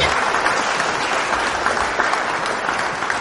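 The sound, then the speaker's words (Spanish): Steady audience applause, a dense crackle of many hands clapping at an even loudness for a few seconds, with no voices standing out. “Esto, creo que esta noticia por esta persona me parece que es merecedora de un aplausaco.”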